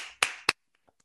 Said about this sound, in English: Um, I'm not very good at doing this mute on mute, but if you could all just join me in giving a clap to our speakers. Thank you very much.